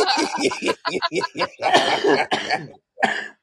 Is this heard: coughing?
yes